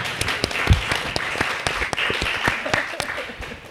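A live audience gathered for a recording applauds itself, many hands clapping in a dense, steady patter with sharp individual claps standing out, moderately loud and continuous throughout.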